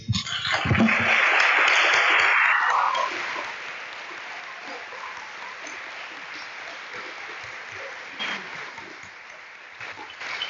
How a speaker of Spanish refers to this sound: No se les olvide que además de ustedes, el rey está aquí. Así que aplaudamos al rey.